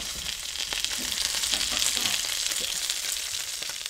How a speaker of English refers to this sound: So the sound of the sizzle is completely different. Like the quality is to because now it's just fat. There's no water left. Yeah. And that's just oil.